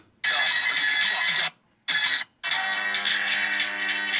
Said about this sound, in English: Oh, it's this really aggressive. Yeah just rhythms I'm playing is from my phone. I know. So super aggressive